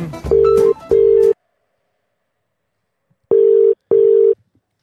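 A telephone rings out on the line with a loud double-beep ringback tone, two paired rings separated by a couple of seconds of silence; the first pair has faint background noise underneath.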